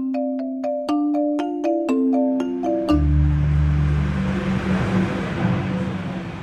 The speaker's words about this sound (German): Schweizers Bild heute ist nicht gerade das, was man gemütlich nennen würde. Die Parallelstraße zur r 4 führt hier durch und die Lastwagen, die aus Schaffhausen Richtung Norden wollen, kommen auch hier durch.